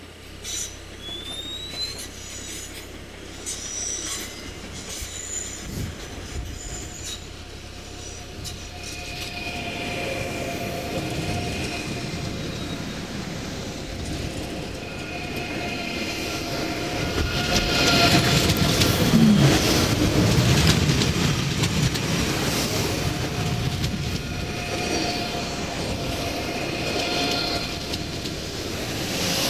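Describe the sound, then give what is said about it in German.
An ICE high-speed train rushes past, its broad roar swelling steadily to a loud peak before easing slightly, with a high, thin whine riding over the rumble. No one speaks. “So, jetzt müssen wir hier warten, dass der ICE an uns vorbei ist.”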